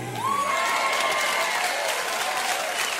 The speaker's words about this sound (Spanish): Dele fuerte ese aplauso a nuestro Señor. Gracias, Señor. Gracias, Señor.